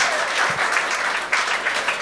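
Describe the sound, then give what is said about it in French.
An audience at a comedy show claps steadily, a dense wash of many hands with no gaps, fairly loud, lasting a couple of seconds, after the comedian says he has been married four years. “Fait intéressant sur moi, ça fait 4 ans que je suis marié. Vous pouvez applaudir.”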